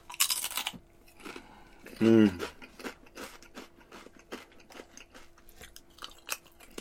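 crunching potato chips

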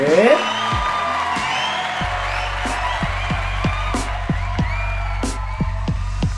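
audience applause and cheering

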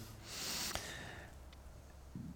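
deep audible breath

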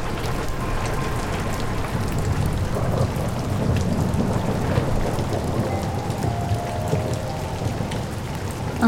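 thunderstorm with rain

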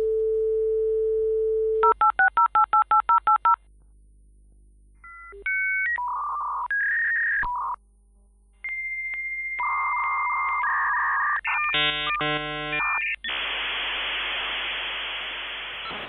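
dial-up modem connecting

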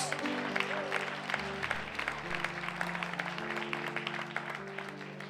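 loud audience applause

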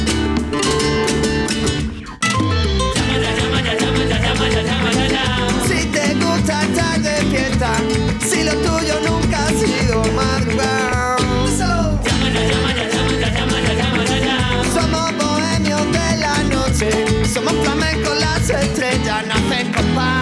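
song

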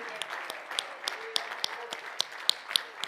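audience clapping hands

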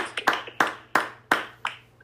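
round of applause

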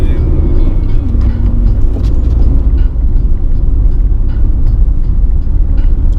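car driving

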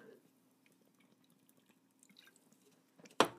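sipping a drink

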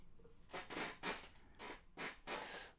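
chair creaking

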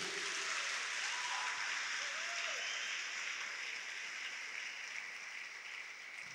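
audience applauding

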